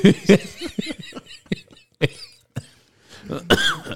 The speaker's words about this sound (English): … coughed on almost literal Cheeto dust